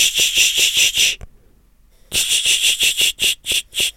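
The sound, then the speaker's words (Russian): A voice imitates the shushing hiss a parent makes to stop a child running in a museum: quick, sharp "ch-ch-ch" bursts, loud and high, in two rhythmic runs of about five and seven with a short pause between. “Дети меня часто дразнят, когда я говорю такой... Ч -ч -ч, ч -ч -ч,”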